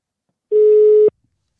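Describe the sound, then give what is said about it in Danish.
A single steady electronic telephone ringback tone sounds for about half a second as a call is placed during a live broadcast to a longtime fan of the club, clear, then stops abruptly, leaving silence. “Jeg tænker lige, at vi, øh, vi prøver at ringe til”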